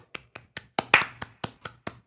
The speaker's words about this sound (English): Can I get a clap from the live studio audience?